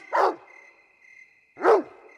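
A dog on a leash barks loudly twice while pulling at the leash, with a pause of more than a second between the two sharp barks and no talking around them.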